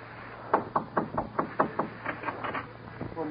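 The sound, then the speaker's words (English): A rapid series of about a dozen sharp knocks on a door, steady and insistent, with a brief lull before a few final raps and no voices. “Go in there and knock on the door.”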